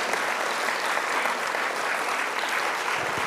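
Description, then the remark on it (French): Steady, sustained applause from an audience, a dense wash of many hands clapping at an even loudness for a few seconds, with no voices standing out. “Et je vous prie d'applaudir.”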